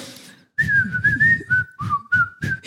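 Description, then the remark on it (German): A person whistles a short, bouncy Christmas melody, imitating a toy songbird at a stand that whistled a Christmas tune, the steady tune gliding between a few notes over about two seconds, with soft breathy puffs and rustling beneath it. “da gab es so einen scheiß Singvogel, der die ganze Zeit so äh, fröhliche Weihnachten gepfiffen hat und sich dabei noch so bewegt hat.”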